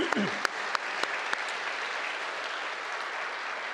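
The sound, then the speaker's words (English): An audience at Grace breaks into a round of applause for two people, one of them the sign language interpreter, a dense, steady wash of many hands clapping that holds for several seconds, with a few sharper individual claps standing out near the start. “She has been here at Grace for 40 years, and so let's give them both a round of applause.”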